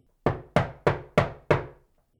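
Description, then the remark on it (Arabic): Five firm knocks on an old, locked wooden door carved with flowers, leaves and lines, in a steady, evenly spaced rhythm, each a sharp, resonant thud that quickly decays, with no voices; nobody opens. “ما حدا فتح ميرا أصرت إنه تدق مرة تانية”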